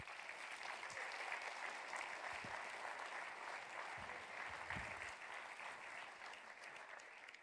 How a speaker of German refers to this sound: gebt ihnen doch einen herzlichen Applaus